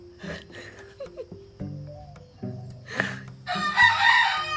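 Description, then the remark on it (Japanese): A young rooster named Piyo, still practicing its crow, gives a short, strained call that breaks off before the final drawn-out note, coming out as "kokekō", with rustling and faint clucks in the background. “これピヨねこれピヨあこれこれこれシロちゃんシロちゃんまだ練習中だからねの伸びがちょっと甘いんだよねコケコーになってんだよね”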